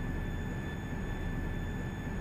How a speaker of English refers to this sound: That's the sound of the CO2 being injected into the sandstone far below. To inject the CO2 into the sandstone, the engineers have to compress it to a pressure that would be like squeezing 365 soccer balls into one.